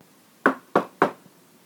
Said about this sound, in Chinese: 陶乐斯站在门口，深深吸了一口气，才举起手来敲了几下门。